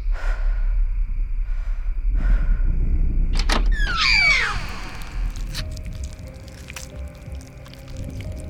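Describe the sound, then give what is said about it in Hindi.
The door of a candlelit room beside a drawing room creaks open with a single drawn-out, squealing groan that slides downward in pitch, set against a steady low rumble and fading into a quiet hum. “मगर जैसे ही उसने दरवाज़ा खोला”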